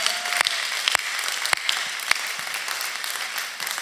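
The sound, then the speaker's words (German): An audience applauds for Jesus in a steady wash of many hands clapping, with a few sharper, louder claps standing out, sustained at an even level throughout with no voices. “Komm, wir geben Jesus nochmal einen Applaus.”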